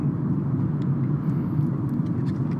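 Steady, dense low rumble of a car cruising on the road at about 45 miles per hour, with constant road and engine noise, a few faint ticks and whines on top, and no talking.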